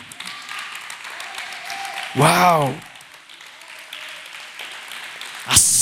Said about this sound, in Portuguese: Quantos pode aplaudir e glorificar ao mesmo tempo?